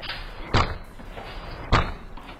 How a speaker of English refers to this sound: The two guys now violently tried to beat down Rodriguez's door